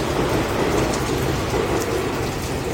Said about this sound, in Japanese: また電車通ってるんですけど